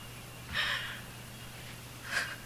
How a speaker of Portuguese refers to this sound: Tá chorando por quê, mãe? Porque eu tô feliz. eu tenho que respirar, porque quem me conhece sabe o quanto eu sou chorona, né?